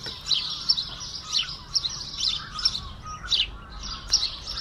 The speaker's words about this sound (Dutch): Chilp, ja, de Ja. Chilp. chilp, Iedereen kent het. Hè? Ik denk dat dit een geluid is dat iedereen wel eh, herkent. Eh, ja, zalig. Eh, Huismus. zeker ook in mijn top 3.